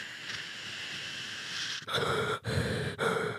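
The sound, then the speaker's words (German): A voice imitates the hiss of a spacesuit's oxygen supply: a long, steady breathy hiss, then three shorter hissing bursts separated by brief pauses, fairly loud. “und da hört man halt auch immer das, wie gesagt, das Atmen von den, von den Astronauten, aber auch das Zischen, jetzt, ahnt ihr vielleicht schon, das Zischen des, äh, äh, des Anzuges, quasi die Sauerstoffzufuhr oder was.”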